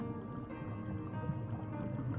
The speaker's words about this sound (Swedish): Ljuset syns nu väldigt tydligt och vattnet har börjat bubbla som kokande vatten.